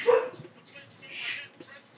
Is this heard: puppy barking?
yes